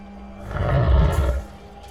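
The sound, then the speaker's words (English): A deep, rumbling creature roar swells and then fades over about a second in a vast cavern with rivulets of molten rock, its low growl carrying a slightly reverberant, echoing quality with no voices present. “Unsettling roars and growls echoed, and shadows danced in the ruddy glow of the oozing rock.”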